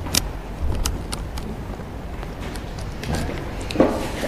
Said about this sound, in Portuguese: Vamos começar a passar por aquela porta que estamos ouvindo.